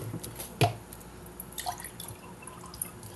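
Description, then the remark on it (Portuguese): Someone drinking a glass of water: one sharp clink and splash of liquid early on, then quiet, faint wet sounds and small sips against a low background hiss, with no talking. “eu tomar um copo d'água aqui rapidão.”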